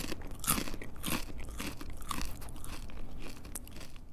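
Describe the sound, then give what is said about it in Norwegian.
Homemade oven-baked crispbread crunching, a series of sharp, dry cracks and snaps as it is broken and bitten, repeating irregularly over a few seconds with no talking. “De er ferdige når de høres slik ut.”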